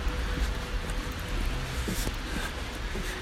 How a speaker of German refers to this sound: Die Räder zischen über den nassen Asphalt.